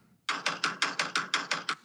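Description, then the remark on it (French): A rapid, steady run of about nine sharp hammer blows, evenly spaced and fairly loud, with nothing else audible around them. “On dirait pas, on dirait pas un bruit de cognage de porte, on dirait plus euh, des marteaux.”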